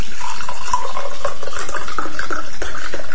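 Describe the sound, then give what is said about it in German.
Wet swishing and squelching as water is pushed across a table with a squeegee, steady for a few seconds, with faint squeaky scraping tones mixed in. “Ja, so einen Wasserschieber habe ich noch nicht für den Tisch.”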